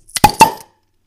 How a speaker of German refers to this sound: Ja, wir haben ein Bier, was jeder von uns öffnen kann.